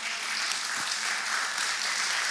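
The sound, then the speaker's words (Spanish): An audience applauds for the Lord in the morning, a steady wash of many hands clapping at once, dense and unbroken at an even level, with no voices standing out. “Dale un aplauso al Señor en esta mañana.”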